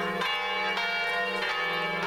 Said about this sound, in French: Et maintenant partout les cloches nous accompagnent à saint jacques où nous sommes admirablement reçus